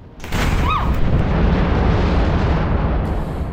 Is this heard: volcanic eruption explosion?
yes